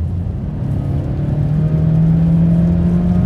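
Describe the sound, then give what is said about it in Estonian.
A light, powerful car accelerates on wet asphalt, its engine drone climbing steadily in pitch over a constant hiss of tires on the road, fairly loud with no one talking. “ma polegi saanud selle autoga puhtal asfaldil, äh, jah, see on märg asfalt, aga ma ei olegi saanud kiirendada, et nüüd saame.”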